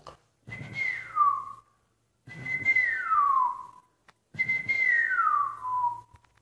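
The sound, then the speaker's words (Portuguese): A person whistles three falling, slurred notes in a row, each gliding downward like a bird call, fairly loud with breathy air around them and short pauses between. “E os passarinhos sabem assobiar.”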